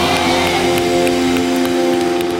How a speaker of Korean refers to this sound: 바라고 원하시는 만큼 우리 주님께 감사와 영광의 박수 올려드립시다.